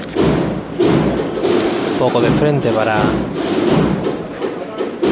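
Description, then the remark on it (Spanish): Wooden knocks from a capataz's knocker (martillo) striking a processional float, signalling the square paso to be lowered before the main door of the Hermanas de la Cruz convent, stand out over dense crowd murmur, while a man's voice calls out instructions. “Se va a arriar ya el paso cuadrado ahora mismo. Va a sonar en breve el martillo.”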